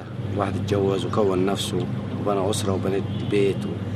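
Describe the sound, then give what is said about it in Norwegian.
Harbour ambience in the tourist town of Luxor, Egypt, with small boats anchored on the water: a steady low engine-like rumble and faint wind hiss run throughout, while a person speaks clearly over it. “Småbåtene står ankret opp på havna i turistbyen Luxor ingen kunder i dag heller.”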